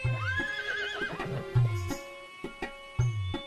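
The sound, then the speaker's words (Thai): A horse whinnies with a rising, wavering cry near the start, followed by a few sharp hoof knocks at a steady, unhurried pace. The horse is a stout royal mount decked in fine ornaments. “รางวัลที่พระราชาพระราชทานให้ปุโรหิตรุหกะครั้งนั้นเป็นอัสดรพ่วงพีพร้อมเครื่องประดับระดับม้าต้นตัวหนึ่งนี่อย่างไรรางวัลสำหรับเจ้าจงรับเอาไปเป็นพาหนะขับขี่เถิด”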